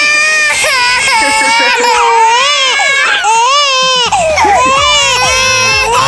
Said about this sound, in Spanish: Porque si ahorita está chillando así, cuando le digas por qué le hiciste la broma, va a chillar así.